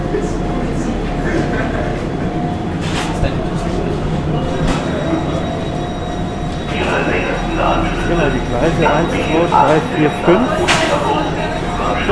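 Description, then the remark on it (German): A commuter train rumbles steadily through a station where S1, S2 and S3 trains stop, its loud low drone filling the space, with faint squeals and indistinct voices of people talking in the second half. “S1, S2 oder S3 halten an dieser Stelle und das ist der einzige Bahnhof.”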